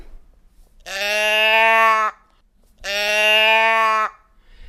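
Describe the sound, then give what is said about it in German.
A classic teddy bear growler voice box, as made by a firm in Effelde, the only one in Europe still producing them, is tipped twice, each time giving a loud, steady, reedy bleat lasting just over a second, with a short quiet pause between the two calls and no talking. “die ist europaweit die einzige, die noch diese klassischen Brummstimmen, Tierstimmen herstellt”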